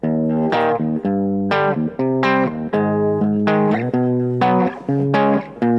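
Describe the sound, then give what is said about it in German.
An electric guitar runs through effects, playing a series of sustained, bright chords and notes with a rich harmonic, slightly chorused tone, loud and steady with no talking. “jetzt wird die Gitarre rausgepackt.”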